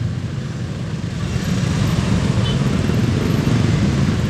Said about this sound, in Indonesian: gue kayak kedengeran gak sih suara suara traffic trafficnya ini